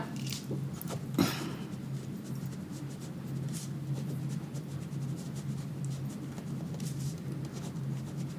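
pen writing on paper

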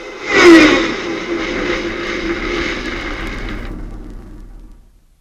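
vehicle engine running

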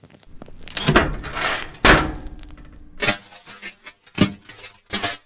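door opening or closing

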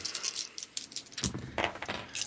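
dice being rolled

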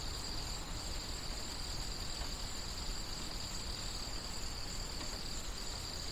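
crickets chirping outdoors

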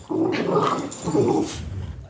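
dogs growling

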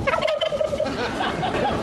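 turkey gobbling

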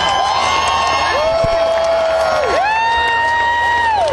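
festival crowd cheering

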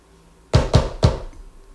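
knocking on a wall

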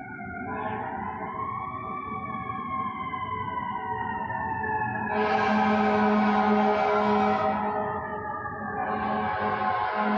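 emergency vehicle siren passing

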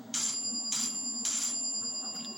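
doorbell ringing

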